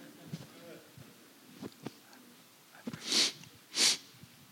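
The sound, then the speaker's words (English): Two sharp, wet sniffles in quick succession, fairly loud, from a person with sinus trouble, following a few soft clicks and breaths in an otherwise quiet moment. “Got my sinuses going. Sorry about that me sniffle.”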